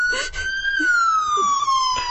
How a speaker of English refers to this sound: I hope we got ambulance coming through here.